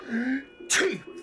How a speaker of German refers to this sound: Gesundheit